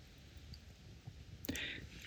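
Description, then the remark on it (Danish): A campfire crackles softly, with scattered small pops and one sharper snap partway through over a low, steady hiss. No one speaks. “Og jeg tror, noget af det, det var, at man var taget stadig ud øh, fra sin vante omgivelser, og så sad vi ved bålet og bare kunne høre bålet, som man nu kan.”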